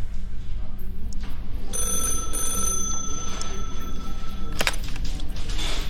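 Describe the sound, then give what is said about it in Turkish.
A telephone rings once for an eyewitness's call, in a steady, sustained electronic tone lasting about three seconds, over a constant low background rumble with faint murmuring, ending with a short sharp knock. “Görgü tanığının bu telefonu küçük Tali'nin belki de hayatını kurtarmıştı.”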